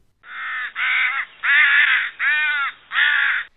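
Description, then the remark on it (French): A crow caws five times in a steady, evenly spaced series of loud, harsh calls, with no other sounds around them. “Les corneilles s'expriment très brillamment. On dit qu'elles crient ou elles créent.”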